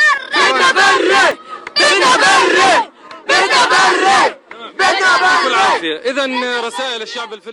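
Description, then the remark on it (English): A crowd of hundreds of young people in Gaza chants "Bidna Barri" ("we want a ground invasion") together in loud, rhythmic bursts, each phrase shouted in unison with brief pauses between, energetic. “You just heard the sound of hundreds of Gazan youth chanting Bidna Barri, which means we want a ground invasion.”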